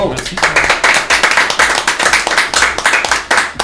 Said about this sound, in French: On applaudit